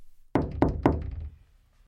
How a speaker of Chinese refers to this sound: 这时，外面有人在敲门，他只好赶快出来了。